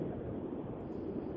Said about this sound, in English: sound of the uh, road beneath his wheels